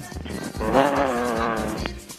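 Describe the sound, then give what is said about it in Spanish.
A phone-in caller imitates a lion's roar with one drawn-out, loud, voiced cry lasting about a second and a half. It holds a fairly steady pitch and ends abruptly, with no other talking. “A ver, yo quiero ver que la gente eh, me tire su rugido de león, a ver si es que son olimpistas de verdad.”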